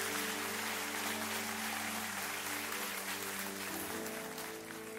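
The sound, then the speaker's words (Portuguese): An audience breaks into sustained applause for the Lord, dense clapping filling the whole stretch at steady loudness, with a low held tone beneath it and no one speaking. “Vamos aplaudir o Senhor se você crê nisso nessa manhã.”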